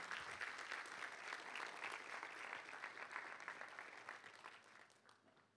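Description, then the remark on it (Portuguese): An audience, standing, applauds for Jesus in a dense, steady wash of clapping from many hands, sustained for several seconds before gradually thinning and fading toward the end. “Um aplauso a Jesus de pé.”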